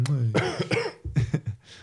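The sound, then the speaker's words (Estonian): A short burst of several harsh coughs in quick succession, preceded by a brief voiced sound, loud with no speech around them. “ma, köhid peale veits.”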